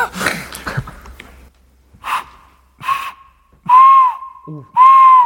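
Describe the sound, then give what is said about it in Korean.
Breathy puffs of air, then three hollow, owl-like hoots blown through hands cupped together, a hand-made call imitating an owl. Each is a steady airy tone, the last two longer and clearer, with no talking. “요거를 이렇게 손을 모아가지고 이쪽 부분을 잘 대고 부르면 약간 부엉이 소리?”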